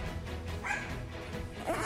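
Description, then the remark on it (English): A dog barks and yips in quick, excited bursts with a scrappy, frantic energy over a low background rumble. “That is the most spastic sounding dog I've ever heard.”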